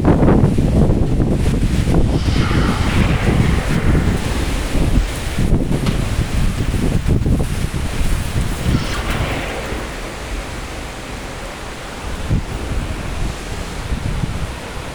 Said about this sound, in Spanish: No es una lluvia vertical, es lateral por los vientos. Está arreciando fuerte, fuerte, fuerte esto.